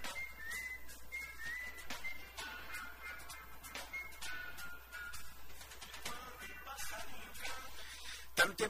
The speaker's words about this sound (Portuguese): dos sabiás aparecerem novamente. Né? Eles estão aí já assobiando por aí nas madrugadas, né? chamando atenção para o acasalamento.